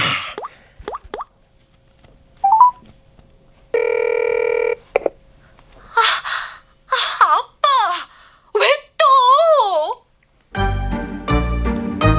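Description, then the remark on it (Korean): A mobile phone's ringing tone sounds once, a steady electronic buzz lasting about a second, surrounded by soft taps, short vocal sounds and exclamations, before music comes in at the end. “우리 딸은 지금 뭐 하나? 핸드폰.”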